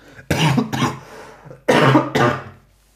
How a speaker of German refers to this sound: warte, ich muss husten.